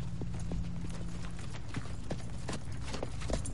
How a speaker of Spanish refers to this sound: Vanessa camina sola por el bosque. Lleva la cesta. Geoffrey se aproxima a caballo.